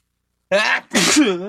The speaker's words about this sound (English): I just sneezed. um, see, I'm a real person.